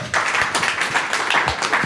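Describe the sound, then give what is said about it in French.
An audience claps steadily, a dense patter of many hands forming a fairly loud, continuous crackle of applause that holds evenly for about two seconds, with no voices over it, applauding the Macron Leaks at a 'Pouce d'or' award presentation. “Eh on peut applaudir les Macron Leaks”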